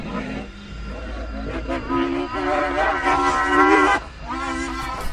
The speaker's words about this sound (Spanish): El puerco volvió a chillar y sus pezuñas impactaron el suelo. Sonó similar a un trueno en medio de un campo.